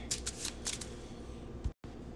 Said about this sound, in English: I'll draw a card. It is the Beat Cop, and I'll shuffle the No Stone Unturned back into my hunch deck.